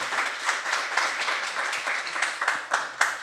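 A crowd applauds steadily for a guest who was the first person to finish the Eastern Divide Trail, dense overlapping hand claps forming a bright, continuous crackle with small swells in loudness throughout, with no voices over it.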